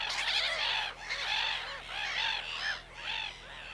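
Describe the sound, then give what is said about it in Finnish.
A black-headed gull colony, returned in spring, calling, a dense chorus of harsh, overlapping squawks and cackles rising and falling in several bursts, loud and continuous with no voices. “Onhan se yksi kevään merkeistä. Naurolokkien kotiutuminen.”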